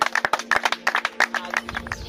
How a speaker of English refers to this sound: We clap for you. We thank you.